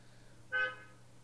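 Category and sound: vehicle, car horn honking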